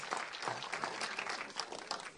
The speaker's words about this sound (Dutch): Applaus, yes. Heel goed, heel goed.